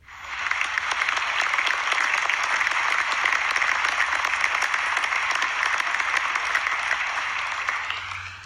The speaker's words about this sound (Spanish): Y porque descargué esta aplicación de efectos de sonido que al parecer tiene unos aplausos demasiado largos. Pero yo siento que yo merezco esos aplausos, no importa.